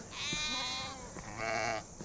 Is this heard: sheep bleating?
yes